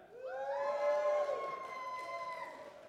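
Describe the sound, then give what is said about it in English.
An audience cheers and whoops together, a dense wash of high shouting voices that swells quickly, peaks, then slowly fades over about three seconds with no speech. “And on like with a cheer, with a cheer, let me hear.”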